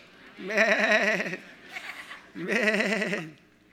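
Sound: audience imitating sheep bleating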